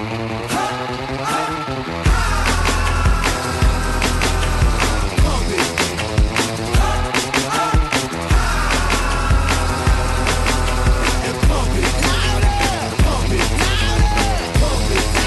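A pop song plays loudly: a thinner opening of about two seconds, then a driving beat with a heavy, pulsing bass line and bright layered synths that hold steady to the end.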